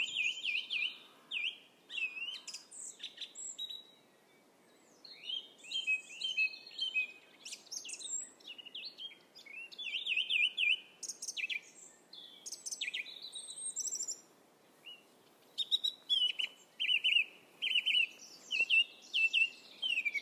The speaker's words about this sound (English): I've spotted the first culprit of the day. He's right at the top of this sycamore and he's just absolutely belting his song out.